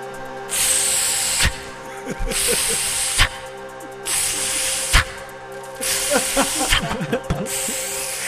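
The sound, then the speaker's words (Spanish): A voice imitates the hiss of dry ice fog with long, steady bursts of breathy white noise, repeated several times with short pauses between them, mixed with faint clicks and murmurs. “Es la mejor imitación de hielo seco que he escuchado en mi vida.”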